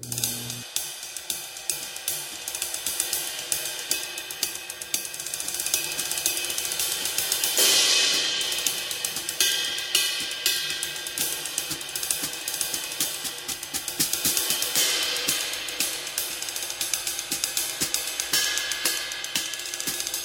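A washy Istanbul Mehmet Kirkor ride cymbal played in a steady stream of strikes, its bright, shimmering sustain building into a broad swell partway through, then continuing with dense, hissy pings and no voices.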